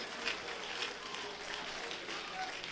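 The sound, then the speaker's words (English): An audience claps their hands together to thank the Lord, a dense, steady wash of many hands clapping at once, with faint voices mixed in beneath. “Come on, everybody, clap your hands.”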